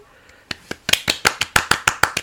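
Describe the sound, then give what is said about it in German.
A short round of applause: about a dozen crisp, evenly spaced claps in quick succession, getting a little louder, lasting roughly two seconds with no voices. “Kann man da mal kurz schon. einen kleinen Applaus für geben?”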